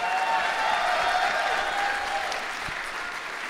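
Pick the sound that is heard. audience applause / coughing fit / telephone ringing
audience applause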